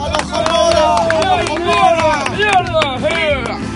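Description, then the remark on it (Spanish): A crowd applauds a Quidditch supporters' group in the south stand, many hands clapping in a dense, continuous patter, with loud voices cheering and calling out over it throughout. “¡Aplauso también!”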